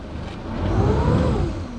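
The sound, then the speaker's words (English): A boat motor revs up steadily, its engine whine rising and holding at a loud level before easing slightly, with no voices over it; the boat of biologists tracking lake sturgeon on the Mississippi River. “Every few days, they hop into a boat and trail a microphone in the river.”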